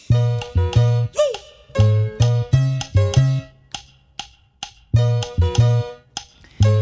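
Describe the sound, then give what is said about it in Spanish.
Upbeat salsa music plays loudly with punchy, syncopated bass notes, sharp percussive hits and bright stabbing chords in a steady danceable rhythm, with no voices. “Qué buena salsa, ¿no?”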